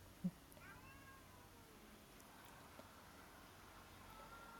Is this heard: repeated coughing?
no